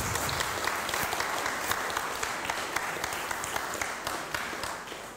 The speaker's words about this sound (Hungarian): Ritkán szoktuk ezt tenni, de köszöntsük Jézus Krisztus egy nagy tapsal. Övé a dicsőség mindezért.